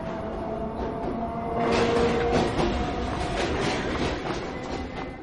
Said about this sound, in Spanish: Espera a que pase un tren.